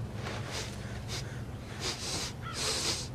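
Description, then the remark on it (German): A series of loud nasal sniffs as someone smells fresh laundry, four or five short bursts in an uneven rhythm, the last one longer and stronger, with no talking. “du und dein Riechkolben, hör bitte auf damit.”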